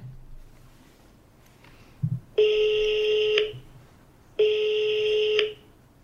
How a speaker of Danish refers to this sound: Altså, øh, så vil jeg ringe til min søster. Ja, kan vi, kan vi gøre det? Altså, vi kan prøve at se, om hun tager den.